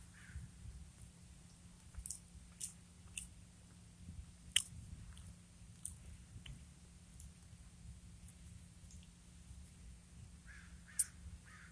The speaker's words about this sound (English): I'm gonna eat some pizza and um. Mm sounds good.